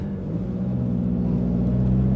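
A car braking, heard as a steady, loud low engine rumble with a droning hum that holds throughout, with no voices.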